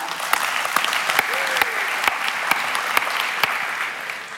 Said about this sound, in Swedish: Dessutom, om jag förstår rätt så är det bara några dagar kvar tills ni firar 30 år i bröllopsdagen. Ja, applåder och busvisslingar.